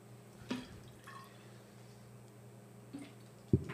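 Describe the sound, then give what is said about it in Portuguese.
Hydrogen peroxide being poured into a test tube up to the 50 mark for a chemistry experiment with potassium iodide and dye, heard as a few quiet, separate drips and splashes spaced over a few seconds against a low, steady background hum, with no one talking. “Não, põe até os 50, senão vai fazer muita sujeira.”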